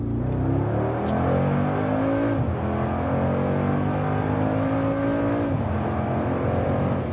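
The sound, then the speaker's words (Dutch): The 4-litre, 585 hp V8 biturbo engine of a Mercedes-AMG G-Class rumbles loudly as the car accelerates, its revs climbing steadily and dipping at two gear changes, with no voices over it. “Ja, dat klinkt niet slecht, hè, dat gebulder van deze V8.”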